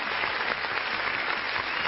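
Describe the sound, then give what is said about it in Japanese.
A long applause sound effect: steady, dense applause from a crowd, a continuous wash of many hands clapping at an even, fairly loud level throughout with no voices standing out. “長いな、拍手。長いんだよ。”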